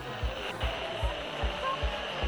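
A steady wash of radio static hiss fills the whole stretch, fairly loud, with soft low thumps pulsing regularly beneath it and no one speaking; the radio is not working.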